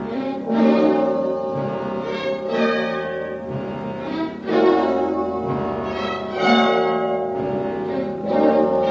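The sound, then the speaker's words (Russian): Bells ring out through a tinny, band-limited radio loudspeaker in a front hall, struck again every couple of seconds in a steady, loud clang mixed with hoarse harmonic music, with no voices. “И вслед за тем в радиорупоре грянули колокола и заиграла хриплая музыка.”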